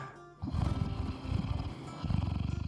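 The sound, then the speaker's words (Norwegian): A person imitates a cat purring, voicing a role-playing game character purring in a hammock, with a low, rumbling, rapidly pulsing growl that starts abruptly and rolls on steadily for a couple of seconds, with no talking over it. “Vincent maler borti hengekøya si.”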